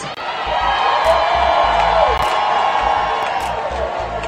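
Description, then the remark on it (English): A large crowd roars and cheers continuously at a championship parade in Las Vegas celebrating the LV Aces' first championship, a dense wash of voices with scattered whoops and shouts rising above it, loud and sustained throughout. “Right there, you heard Aces and Raiders owner Mark Davis addressing the crowd at the parade yesterday, the celebration for the LV Aces hoisting their first championship”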